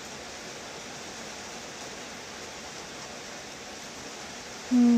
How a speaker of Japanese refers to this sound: やっぱりこうやって雨が降ってくれてすごく潤って